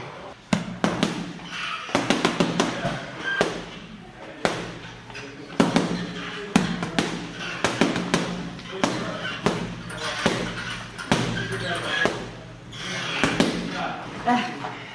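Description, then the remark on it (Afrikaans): Punches, mostly hooks thrown in combinations, hitting a boxing bag: dozens of loud, dull thuds landing in quick bursts and combinations, with an uneven rhythm and short pauses between flurries. “Jy slaan baie hard.”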